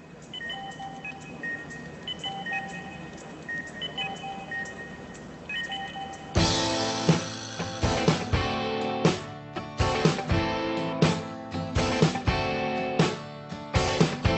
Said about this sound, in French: on parle de la musique, mais je trouve que le meilleur moyen, ça reste de l'entendre.